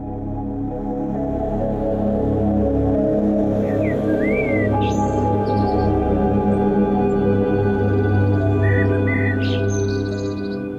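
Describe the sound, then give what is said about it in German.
A few scattered early-morning bird chirps and short whistles ring out over a steady, loud low hum, with quiet gaps between calls and no voices. “Kurz nachdem die frühen Vögel in ihren Gesang einstimmten”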